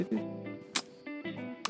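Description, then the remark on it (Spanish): A voice imitates a console's disc drive, as it sounds at times like when pressed with no disc inside, making a buzzing, droning mechanical hum broken by two sharp clicky bursts, fairly quiet, with no other sounds around it. “Así suena, a veces, y a veces está apagado y suena así.”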